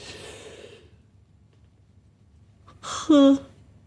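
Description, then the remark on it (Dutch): A narrator imitates a dormouse's drawn-out yawn, a breathy rise that ends in a loud, strained vocal stretch near the end, after a quiet stretch that follows a soft breath. “gaapte. En in zijn ogen wreef, want hij werd heel slaperig.”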